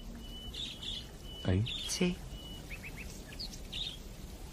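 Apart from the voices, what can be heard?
bird chirping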